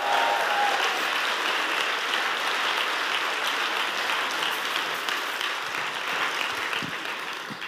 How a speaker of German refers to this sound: Können wir dem Team mal richtig großen Applaus geben?